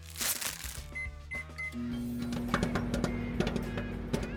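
A microwave beeps three times as its buttons are pressed, then starts a steady low hum while fresh popcorn kernels crackle and pop irregularly over it.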